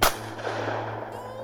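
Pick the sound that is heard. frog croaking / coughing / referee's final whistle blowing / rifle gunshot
rifle gunshot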